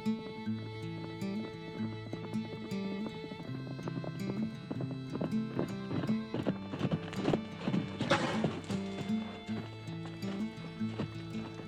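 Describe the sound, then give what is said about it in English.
A horse's hooves clip-clop in a steady, rhythmic walking pace as the horse is ridden, clear, over a sustained musical backdrop, with a brief noisy burst near the end. “If it's all right, I'll show you how I ride. It'll make it hurt less.”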